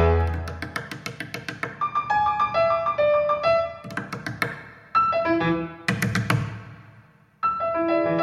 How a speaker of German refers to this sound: Wie ihr gleich hört, muss ich mit den Fingern auch auf dem Tastendeckel klopfen.